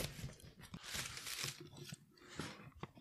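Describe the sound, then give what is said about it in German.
Noisy tearing and crinkling of a parcel's paper packaging, advertised as sustainable, as it is opened to reveal something wrapped in paper: a few bursts of ripping and rustling over three seconds, fairly loud, with no talking. “Okay, also da drin ist jetzt ein nochmal ein irgendwas in Papier eigentlich.”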